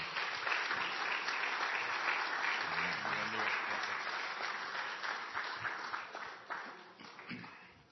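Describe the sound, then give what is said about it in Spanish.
A crowd applauds steadily to welcome a speaker at an evening gathering, a dense wash of clapping that stays strong for several seconds before gradually thinning and fading out, with a few faint voices mixed in. “Por favor, pase, dar la palabra y y darle un fuerte aplauso y bienvenido para el hermano.”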